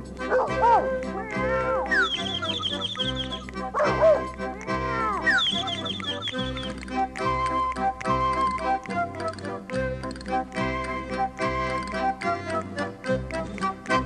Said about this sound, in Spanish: los perritos ladran guau guau, los gatitos te dicen miau.